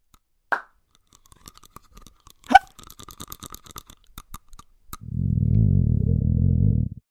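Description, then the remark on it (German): A sequence of human body noises: a sharp pop, a hiccup-like gulp, scattered small crackles and clicks, then a loud, low rumbling that lasts about two seconds. No one speaks. “Wir rumpeln, hicksen, grummeln, knacken, knirschen, knallen.”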